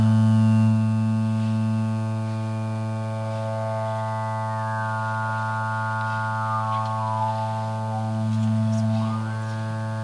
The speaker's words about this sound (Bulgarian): Имаме един базов тон, който тук в случая е сложен на 110. И тук имаме две допълнителни частоти. Към основния тон има две допълнителни частоти.